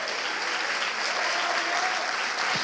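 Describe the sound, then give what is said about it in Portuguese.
A worship audience claps steadily to glorify God, a dense wash of many hands applauding together at an even level throughout, with no one speaking over it. “Aplauda Ele, glorifique a Ele.”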